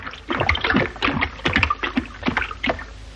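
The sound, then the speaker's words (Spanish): A voice playing an ancient Egyptian imitates flowing water for a water hieroglyph, with a rapid series of bubbly, gurgling mouth sounds, about eight quick bursts in three seconds, moderately loud. “Aparece agua.”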